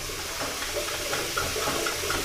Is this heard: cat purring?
no